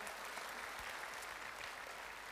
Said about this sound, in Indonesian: Kita berikan tepuk tangan buat Tuhan.